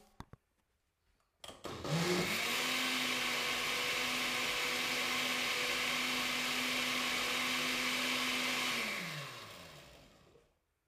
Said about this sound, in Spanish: El paso número 3, bueno, el paso número 2 es batir bien toda la fruta, toda la verdura y el agua.